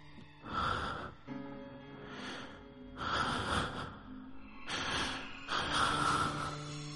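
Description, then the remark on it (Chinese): A voice imitates the heavy breathing of a man, as heard at the ear while half asleep in bed: slow, hoarse inhales and exhales alternating for about seven seconds, around five breaths in all, fairly loud and breathy, with no talking. “睡觉睡到半梦半醒之间，我能感觉到我的后背呀，有个男的在贴身的抱着我，而且我的耳边能清晰的感觉到和听见他的呼吸声，”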